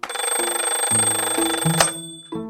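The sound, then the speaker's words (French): An alarm clock rings loudly at 7 o'clock sharp, a bright, continuous electronic chiming with shifting tones that cuts off abruptly, then starts again briefly. “Son réveil avait sonné à 7 heures pétantes.”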